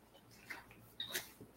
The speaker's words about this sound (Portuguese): Vou só beber mais uma aguinha aqui.